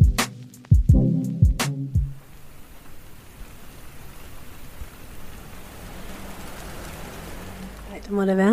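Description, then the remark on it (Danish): Steady rain patters down on a balcony outdoors in a continuous hiss, opening with a few sharp knocking thumps; a voice starts speaking faintly right at the end. “Og vi slutter, hvor vi startede. På altanen ude i regnen.”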